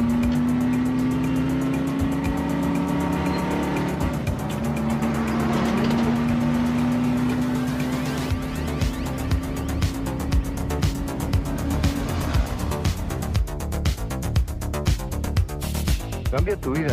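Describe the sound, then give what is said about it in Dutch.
Busy street traffic in Naples with a steady engine drone and vehicles revving and passing, mixed with indistinct voices in the background and clattering activity toward the end. “Maar ook als je niet voor Ajax bent, moet je echt een keer naar, naar Napels gaan. U hoort het.”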